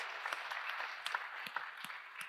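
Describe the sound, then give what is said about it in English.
A crowd applauds a man who led all three youth mission trips this summer, with dense, steady clapping, individual sharp claps popping out at irregular moments over a continuous wash of hand noise, fairly quiet overall with no voices. “Yeah, that deserves applause.”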